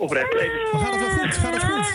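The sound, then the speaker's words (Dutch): A young child wails loudly and continuously in high, strained cries just after falling down the stairs, while an adult speaks soothingly underneath. “Het is eh, voor aankomende ouders, als je kind huilt, is het goed teken.”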